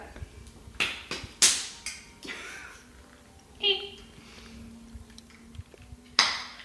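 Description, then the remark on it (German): Someone struggles to open a glass jar, with a handful of sharp, irregular clicks, taps and knocks from the lid and glass, separated by short pauses of quieter handling noise. “Wenn ich mit dem Glas kämpfe, kannst du ja vielleicht schon mal das Quitten-Chutney probieren.”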